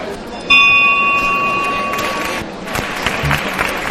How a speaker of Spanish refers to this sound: Bueno, pues hemos escuchado sonido de campana, también característico de la hermandad.